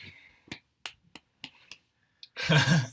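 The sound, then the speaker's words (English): About six sharp hand claps at a steady, unhurried pace, moderately loud, followed by a brief burst of a voice. “Slow clap in the background, man.”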